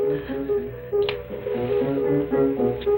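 A cigarette holder taps against a glass in time to the music, a couple of brief, sharp clicks that cut through steady background music playing throughout; no one speaks.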